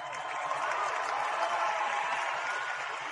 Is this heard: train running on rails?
no